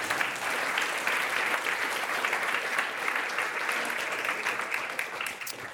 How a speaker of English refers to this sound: All right, let's give them a round of applause for getting through the big battery.